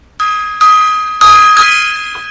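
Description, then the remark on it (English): A gong is struck three times in quick succession, each loud, bright metallic hit ringing on and overlapping the next, with no voices. “Gong time.”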